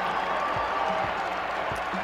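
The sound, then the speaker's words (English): A large crowd at a Middle Tennessee Blue Raiders home basketball game roars and applauds as the clock runs down on a win, a steady, dense wash of noise that holds at an even level for the whole couple of seconds, with no single voice standing out. “And you can hear the crowd in the background starting to celebrate this one.”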